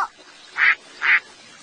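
A duck quacks twice, two short, nasal bursts about half a second apart, clear and fairly loud over a faint background hiss with no talking.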